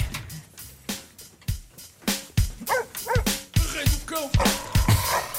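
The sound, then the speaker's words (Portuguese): A short, punchy theme jingle for a radio segment, made in the last century, built from rapid dog barks, yips and whimpering yelps in a bouncy, rhythmic pattern, loud, with no talking over it. “Isto é o tema criado por Jimba para o homem que mordeu o cão”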